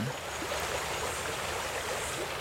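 river water flowing

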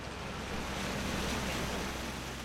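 sea waves heard

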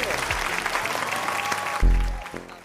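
applause

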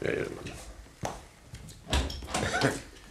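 door being opened

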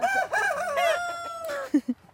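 rooster crowing

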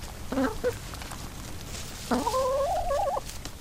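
chickens clucking

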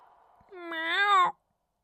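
cat meowing

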